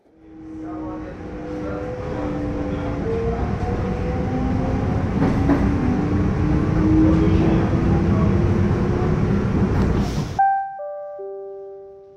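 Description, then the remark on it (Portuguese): A passenger train rumbles loudly along the rails with a rising electric motor whine for about ten seconds, then stops abruptly at a platform and a short descending chime of tones rings out. “Passageiro, ao desembarcar, observe o espaço entre o trem e a plataforma.”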